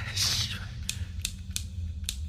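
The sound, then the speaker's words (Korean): A rain-soaked lighter being struck repeatedly without catching: a soft scrape, then four sharp clicks at uneven intervals over a low background rumble. “라이터도 비에 젖어서 안 켜지는 상황이다 보니 이젠 구조될 때까지 그냥 기다릴 수밖에 없었다.”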